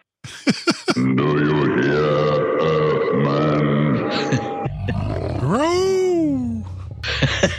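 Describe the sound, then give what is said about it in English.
A few sharp clicks, then a long, rough, growling lion roar, triggered just as an owl hoot was playing, merges into a swooping, hooting call rising and falling in pitch, like a lion roar blended with an owl's hoot. “that was like I hit the, the the lion just as the owl was oh. hooting, and it kind of came out like a lowl.”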